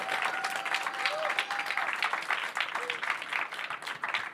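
An audience at a masterclass applauds steadily after a practical exercise, many hands clapping in a dense, even wash of sound that holds at a fairly loud level for several seconds, with a faint tone and murmur underneath.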